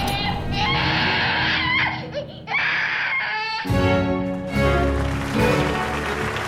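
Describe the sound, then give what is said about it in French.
A newborn baby wails loudly at birth behind a thick wooden door, in a dramatized birth of Molière on 14 January 1622: long, strained cries with a brief catch for breath, then a denser, fuller stretch of crying through the end. “Derrière l'épaisse porte de bois va naître un vigoureux enfant.”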